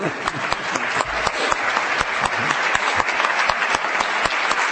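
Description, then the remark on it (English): An audience bursts into steady, loud applause with cheering after a call for a cheer for liberalism in Illinois, a dense wash of many hands clapping at an even level throughout, with sharp individual claps popping out of the roar. “But in the meantime, let us have a cheer for liberalism in Illinois.”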